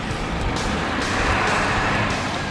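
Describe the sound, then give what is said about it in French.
A truck engine rumbles loudly and steadily with a broad, gritty roar, continuous for the whole moment with no voices, as zombies run after the truck. “Les zombies se mettent à courir derrière le camion”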